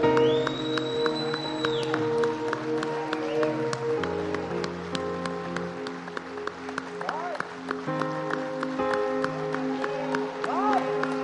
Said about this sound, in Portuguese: Com as mãos altas, vai aplaudindo a Deus agora. Aplaude mesmo.